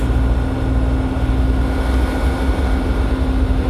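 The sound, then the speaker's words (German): Diesel locomotive 006 drones steadily in the background at Memmingen, a loud, constant low rumble with a humming tone running through it, unbroken for the whole stretch and with no one talking. “Man hört unsere 006 im Hintergrund noch vor sich hinschreien.”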